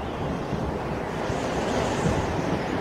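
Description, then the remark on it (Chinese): Strong wind picking up as a big storm approaches, roaring in a steady, dense rush, swelling slightly as it goes, with low buffeting rumbles underneath and no voices. “风开始来劲儿了，远处传来隆隆的雷声。”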